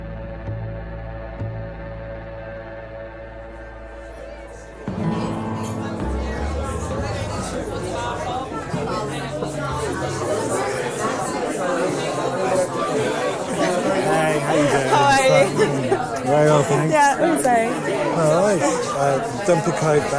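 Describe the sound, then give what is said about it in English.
A steady low hum for the first few seconds gives way to a dense, loud crowd of many voices chattering at once, a lively bar-room babble that keeps building, in a bar on Broadway Market. “We are in Off Broadway on Broadway Market. Sounds pretty lively, dude. It is pretty lively.”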